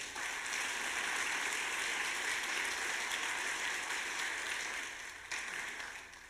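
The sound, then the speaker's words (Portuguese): A crowd applauds Jesus at a preacher's call, a dense wash of many hands clapping at once that holds at an even level for several seconds before tapering slightly at the end; no one speaks. “Aplauda Jesus por isso.”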